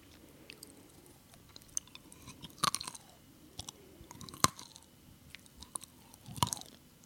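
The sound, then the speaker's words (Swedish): Crunchy chewing of nuts by a person with a mouth full of nuts, with sharp cracking bites at irregular intervals, three especially loud crunches standing out among quieter mouth sounds and smaller crackles. No talking. “Käften full i nötter. Ja, så det knastrar gött.”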